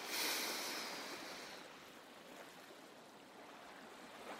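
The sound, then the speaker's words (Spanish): Sea water washing at the shore in Bangli, a soft rushing hiss that swells at the start and then settles into a steady, fairly quiet wash, with no voices. “Me meto al mar y antes de empezar a llorar respiro y regreso a la orilla.”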